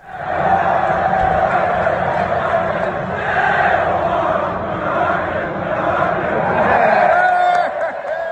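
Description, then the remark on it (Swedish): A large crowd of Stoke stadium fans at a match against Huddersfield chants in unison that Neil Warnock is a wanker, a loud, continuous roar of many voices carrying a sung melody that swells and holds steady for several seconds. “klippet när de sjunger att Neil Warnock is a wanker och han applåderar tillbaka och får eh, applåder från egna publiken.”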